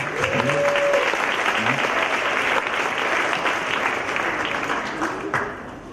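A crowd applauds steadily to welcome the day's preacher, a dense wash of clapping holding at a fairly loud level for several seconds before thinning toward the end; a brief tonal whistle or squeak shows early on.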